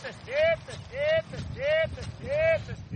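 A herder calls his cows with four loud, drawn-out, arching vocal calls at a steady rhythm, each ringing out clearly over a low outdoor rumble.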